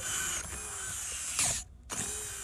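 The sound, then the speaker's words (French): A bionic prosthetic hand with fully articulated fingers and phalanges, activated by its wearer and held close to the microphone; its small motors whir steadily as the fingers move, a buzzing mechanical hum that swells briefly, cuts out for a moment, then starts again. No one speaks. “Mais là, vous, vous avez vraiment tous les doigts, les phalanges. Oui. Puis là, vous l'activez, on hein. l'entend.”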